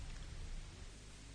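radio static

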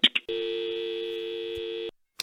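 telephone busy tone

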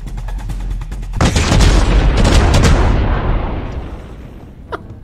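video game explosion

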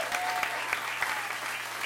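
audience applause

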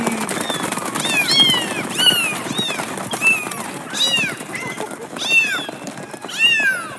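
kittens meowing

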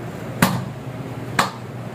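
single hand clap

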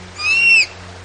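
bird calling

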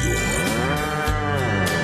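bull mooing

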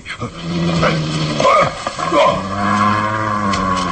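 dog growling and snarling

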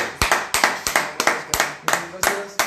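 applause

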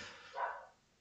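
dogs barking at night

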